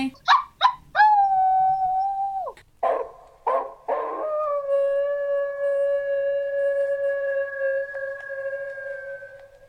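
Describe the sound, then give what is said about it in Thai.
A dog gives a few short yips, then a long wavering howl, a couple of sharp barks, and a sustained howl lasting several seconds. It sounds fairly loud, with no talking. “หมามันหอนทำไมผมก็ไม่รู้ แต่มันไม่ได้เจอผีแน่ๆ เพราะว่ามันไม่รู้ด้วยซ้ำว่าผีคืออะไรแล้วก็ยังไม่มีใครรู้นะคะว่ามันหอนเพราะอะไร”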